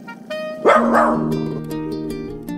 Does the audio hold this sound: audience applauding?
no